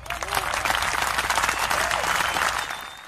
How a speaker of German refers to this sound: Ein Applaus noch für die Jungs von ….